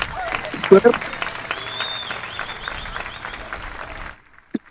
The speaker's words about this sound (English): thank you for that clap.